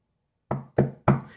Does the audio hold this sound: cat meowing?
no